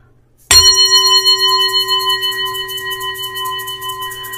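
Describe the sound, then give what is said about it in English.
A meditation bell is struck once after a brief silence, then rings on with bright, steady overtones that fade only slightly, the tone shimmering gently. No one speaks. “As you Hear that bell again.”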